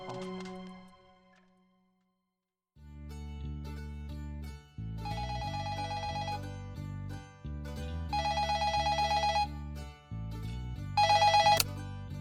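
A telephone rings on an outgoing call: after a brief tone and a short silence, a low hum carries three evenly spaced bursts of trilling ring, each lasting over a second.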